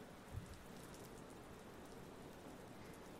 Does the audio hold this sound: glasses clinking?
no